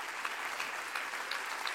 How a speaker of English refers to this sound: Clap your hands and say amen to that.